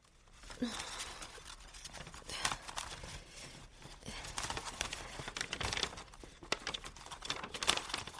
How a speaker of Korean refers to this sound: 허공에 걸린 집들끼리 부딪히는 소리가 이야기처럼 들렸다.